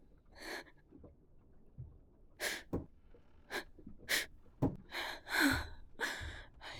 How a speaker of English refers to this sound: She is breathing.